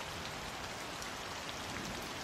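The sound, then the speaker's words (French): Steady, dense rain pours down continuously on a street in London, a broad hissing wash with fine pattering detail, as if falling heavily on pavement. No voices, no pauses. “Face à moi, la rue s'étend sous un épais rideau de pluie.”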